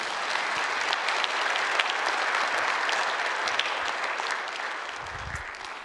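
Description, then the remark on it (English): An audience at a church service claps steadily for several seconds as a guest speaker comes to the stage, a dense, even wash of many hands with sharp individual claps poking through, gradually thinning toward the end. “So, why don't we give him a round of applause as he comes to the stage?”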